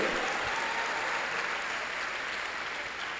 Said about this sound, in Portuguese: quer bater palmas. Louve ao Senhor. Louve a ele.